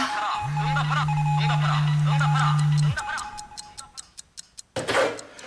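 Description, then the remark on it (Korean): A telephone rings with a steady buzzing tone and a warbling melody for about two and a half seconds, then cuts off, leaving soft regular ticking and a brief noisy burst. “그럼 전화를 왜 안 받아?”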